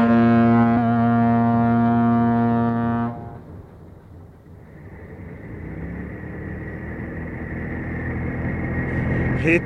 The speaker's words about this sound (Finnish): Iso alus ei voi kääntyä, se ajaa suoraan meitä kohti. Hyvä luoja! Mies, etkö voi tehdä mitään, etkö saa moottoria käyntiin. Pian on kysymys vain sekunneista. Katso, laiva lähenee kovaa vauhtia. Nyt, nyt se ajaa päällemme!